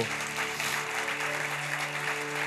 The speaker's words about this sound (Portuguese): Se você crê, diga amém, aplauda Jesus por isso.